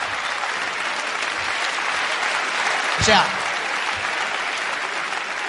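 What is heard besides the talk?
audience applause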